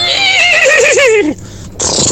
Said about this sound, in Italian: Ma che è un cavallo, che era?